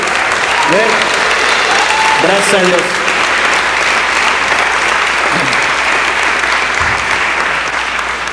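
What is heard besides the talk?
audience applauding loudly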